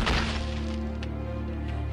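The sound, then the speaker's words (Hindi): A young woman, pushed while dancing by the low grille of a terrace, falls from the terrace and her body hits the ground with a single loud, heavy thud right at the start, followed by a low sustained droning tone that lingers to the end. “वो चिल्लाई और इन नो टाइम टेरेस से नीचे गिर गई”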